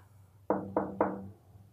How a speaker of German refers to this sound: und wie sie da so schweigend am Tisch saßen, klopfte es an die Tür.